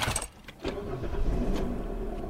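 A car engine in a parking lot cranks briefly, then catches and settles into a steady low idle, with no voices.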